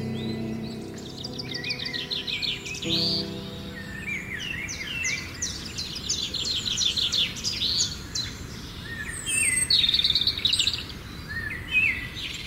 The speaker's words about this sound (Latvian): Arī putnu dziesmas ir iekļauts muzejnieku Mārtiņa Bērziņa veidotajā Ojāra Vāciešu klausītās muzikas sarakstā. Putnu dziesmas, nu, varbūt gluži ne, ne tā mūzika, bet Ojāram Vācietim putni ārkārtīgi svarīgi.